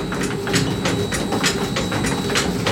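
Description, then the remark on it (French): The ticking clapper of a flour mill taps in a steady, quick rhythm, about two clacks a second, as grain passes from the hopper into the feed shoe, over a continuous low rumble of turning machinery. Moderately loud, with no voices. “Le grain passe de la trémie dans l'auger et ce que vous entendez, c'est le tic-tac du moulin.”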